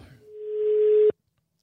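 A single steady electronic ringback tone from an outgoing phone call, a clear pure hum that swells slightly in volume for about a second before cutting off abruptly into silence.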